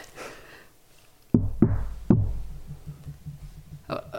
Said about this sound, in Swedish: Och det är tyst. Och så försöker man få kontakt. Hallå? Hallå? Så hör jag bara att det är någon som knackar.